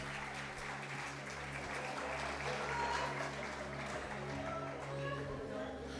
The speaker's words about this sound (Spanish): Hermanos, démosle un aplauso a esta gente que se metió ahí.